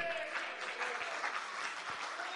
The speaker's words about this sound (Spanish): Le, denle palmas de alabanza a los que tienen deseo.